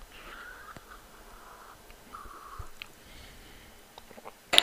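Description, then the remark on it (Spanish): Quiet sipping of cold coffee from a cup: a couple of soft slurps and small mouth noises, then a brief sharper knock right at the end. No one speaks. “Bueno, siguiente tema, va a ser tomar un sorbo del café este que tengo aquí, que debe estar congelado ya.”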